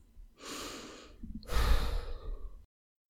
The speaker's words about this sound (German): Lasst uns einmal tief durchatmen und beginnen.